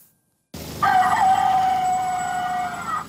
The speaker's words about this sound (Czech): Když se na vesnicích na východě Čech ozývá kokrhání, ne po každé to musí být kohout. Stejně se hlásí i pojízdná prodejna.